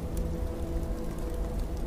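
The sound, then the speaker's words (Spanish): Steady cold rain pours down in a constant, dense patter with a low rumbling undertone, unbroken throughout, with no voices. “hasta una noche de marzo, donde la lluvia fría y desapacible me indicó que la siguiera a través de las puertas del recuerdo”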